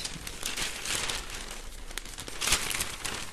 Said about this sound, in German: Da hört man nochmal, dass das hier richtig Papier.